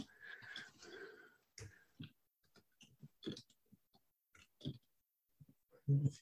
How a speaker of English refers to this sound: Listeners, you may be able to hear me furiously typing.